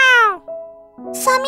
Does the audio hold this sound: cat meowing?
yes